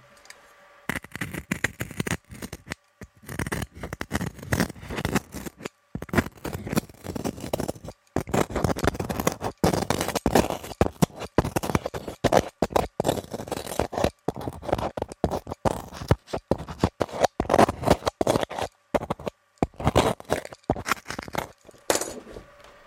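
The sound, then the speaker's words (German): Continuous scraping and cutting noises with rough, irregular strokes as the surface of a loudspeaker is cut through, lasting the whole stretch without any talking. “Ich zerschneide die Oberfläche.”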